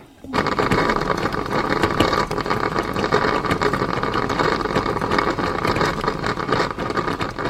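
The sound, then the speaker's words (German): A coffee machine's flow heater fizzes and crackles steadily as citric acid dissolved in water descales it, a dense, loud, continuous hiss with busy bubbling pops throughout and no voices. “Nach etwa einer halben Kanne schalte ich die Maschine ab und lasse die Zitronensäure, die jetzt im Wasser gelöst ist, im Durchlauferhitzer wirken. Und das hört sich dann etwa so an.”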